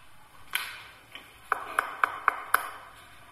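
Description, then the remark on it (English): A quick series of five sharp knocks in a steady rhythm, fairly crisp, after a couple of softer taps, with no talking. “Can you communicate using noise, such as a knock like this?”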